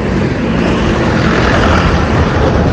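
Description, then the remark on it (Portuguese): A loud, steady engine roar of a bus passing by outside, deep rumbling with broad hissing noise that holds constant throughout, with no talking. “Gente, hoje tá que tá, hein? Outro ônibus aqui.”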